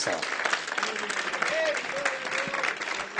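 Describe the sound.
An audience applauds the Holy Spirit steadily, dense clapping filling the whole clip at a fairly even loudness, with a few voices calling out and a brief tonal shout rising over the noise.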